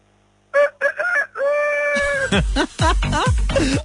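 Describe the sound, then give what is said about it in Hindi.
A person loudly imitates a rooster, giving a few short voiced calls and a long drawn-out crow, then breaking into a quick run of choppy, clucking bursts. “कोई ऐसे मुर्गे मुर्गे कैसा निकाल करो मुर्गे कैसा हाँ हाँ करो करो करो करो बिल्कुल ठीक है करो यार ये तो बड़ा लेवल था यार एक रुपए का और करो यार थोड़ा सा और करो”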